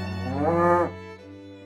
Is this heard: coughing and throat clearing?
no